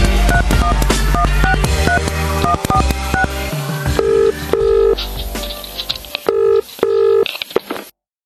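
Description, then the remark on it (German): Telephone keypad tones dialed in a quick, uneven run of short beeps, then a few longer sustained touch tones, all fairly loud over a dense, busy background with no talking. “Wir wählen uns an und dann klingelt es”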